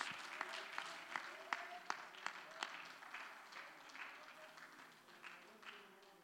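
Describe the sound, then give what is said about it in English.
An audience applauds for the Lord as the preacher comes up, a dense wash of clapping with a few sharp, louder claps standing out early on, then settling into steady, slightly softer applause that continues throughout. “So let's give the Lord a mighty hand”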